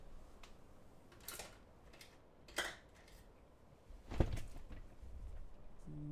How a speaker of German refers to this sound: Also, den Namen muss ich mir aufschreiben. Warte, ich mir kurz einen Zettel. Ja. Ach, wartet, ich schreibe kurz auf.